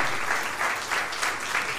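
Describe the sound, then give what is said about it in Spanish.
An audience claps steadily to honor people who have changed their lives, a dense, even patter of many hands with soft swells every few tenths of a second, sustained at moderate loudness with no voices on top. “Así que quiero dar un aplauso a estos que han dado de verdad su vida, que han cedido de verdad a una vida distinta y que de verdad quiero que los honren hoy con ese aplauso, porque no es fácil, no es fácil.”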